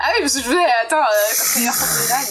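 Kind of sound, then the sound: animal, cat hissing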